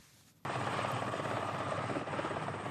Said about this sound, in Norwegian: I valgkampens sluttfase så bruker de helikopter for å tiltrekke seg oppmerksomhet fra befolkningen bilistene som stanger i kø. I morgenrushet denne uka fløy de over Nord-Jæren med spørsmålet 'Er du lei kø?' på et eh, flagrende banner.